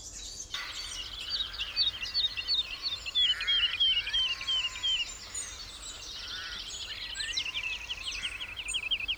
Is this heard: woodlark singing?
yes